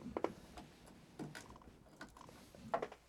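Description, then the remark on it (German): A few small, quiet plastic clicks and scrapes as a headphone plug is clicked back into its jack, spread irregularly over a few seconds with no talking. “Da, da muss es wieder rein. Genau, das mache ich jetzt auch einfach. Ich klicke das jetzt hier rein.”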